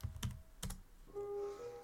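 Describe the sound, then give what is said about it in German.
Three or four sharp, clacky computer keyboard presses in quick succession as a locate command is typed, followed by a soft sustained electronic tone humming in the background. No voices. “Ich würde mich gerne in ein ähm, Badlands-Biom tippen.”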